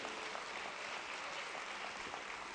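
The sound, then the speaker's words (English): A church audience claps for the Lord during a sermon, a dense, steady wash of applause that holds at an even, fairly soft level for the whole stretch, with no voices over it. “Give the Lord another hand clap, somebody, and praise him.”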